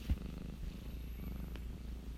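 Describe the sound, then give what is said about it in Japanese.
A cat named U-chan purrs steadily, a continuous low rumbling vibration with a soft rhythmic pulse, quiet overall with no voices. “さっきゴロゴロ言ってたのがうーちゃんです”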